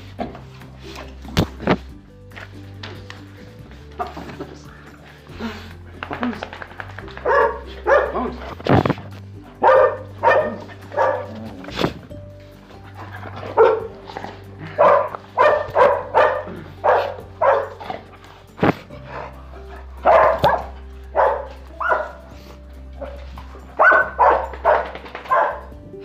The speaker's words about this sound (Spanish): Seguramente están escuchando los sonidos, los ladridos de Choconostla y de Coqueta, que son eh, las perras que están en nuestra familia. La coqueta eh, fue rescatada por mi esposa y bueno, ya la familia la, adoptamos.